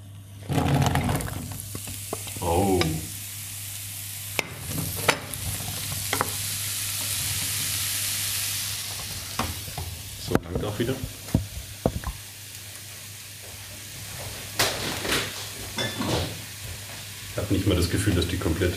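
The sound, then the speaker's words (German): Zucchini poured into a pan sizzles loudly in hot oil, with a steady hiss broken by scraping stirs and clinks of a utensil, and a voice speaking briefly in the background. “So, jetzt können wir die Zucchini reinschütten.”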